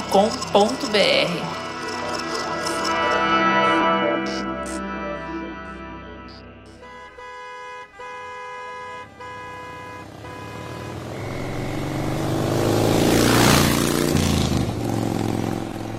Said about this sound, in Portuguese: Antônio já está costurando carros no trânsito de São Paulo